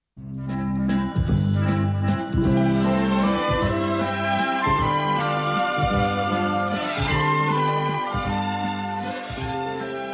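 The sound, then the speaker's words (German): A bright, tinkling instrumental theme melody for Nils Holgersson's Wonderful Journey, the Swedish children's book by Selma Lagerlöf. It has chime-like high notes over a steady, rhythmic bass pattern and plays continuously and fairly loud with no voices. “Und ich denke mal, wenn du nur diese Melodie hörst,”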